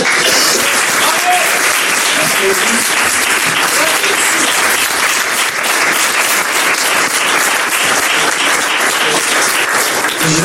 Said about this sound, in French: je remercie tous les participants d'être venus. Je pense qu'on peut aussi les applaudir.